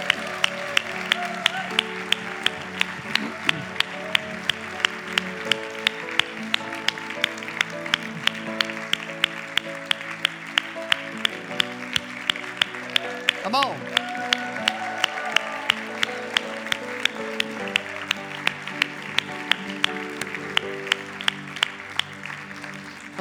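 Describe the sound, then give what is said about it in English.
A church audience applauds and cheers for a man during a morning service for over twenty seconds, the clapping falling into a steady rhythmic beat over sustained musical tones, loud and full like a large crowd of people. “Come on, church. Let's let him hear this morning.”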